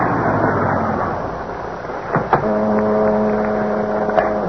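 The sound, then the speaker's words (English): A car engine rumbles as the vehicle rolls up and halts alongside a deserted waterfront building, followed by a couple of short clunks before the motor settles into a steady, humming idle. “finally came to a stop alongside a deserted waterfront building.”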